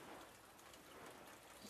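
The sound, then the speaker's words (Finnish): Small waves lap steadily against the shore of Lake Saimaa on a rainy, misty day, a continuous watery wash with gentle swells and no voices. “Aallot lyö tuohon siististi tuohon rantaan.”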